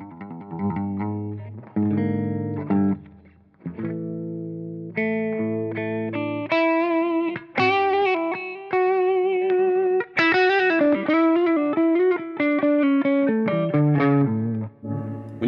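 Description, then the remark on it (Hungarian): Electric guitar played through an amp with the overdrive turned all the way down to zero, giving a thin, clean tone: chords and single notes ringing out in a steady, unbroken phrase, moderately loud, with no voices. “ez egy ilyen kicsit ilyen vérszegény tiszta, amit az Overdrive csak lehet”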